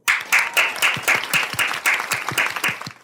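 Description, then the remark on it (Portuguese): Applause with a sharp, uneven rhythm of claps, about a dozen distinct bursts in three seconds, loud and steady throughout, with no one talking over it. “Palmas para nós de novo.”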